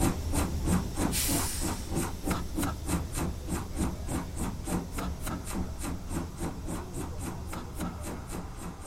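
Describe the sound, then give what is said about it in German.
A steam locomotive chuffs in a steady, rapid rhythm, each puff a sharp burst of hissing steam over a low mechanical rumble, with a louder hiss of released steam near the start. “Gerade noch war man mit der Kutsche gefahren, da fauchte schon die Eisenbahn, knatterte das Automobil, dröhnten Flugmaschinen in der Luft.”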